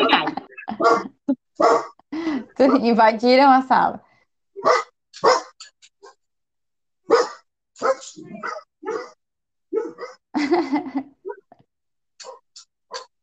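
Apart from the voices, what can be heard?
dogs barking indoors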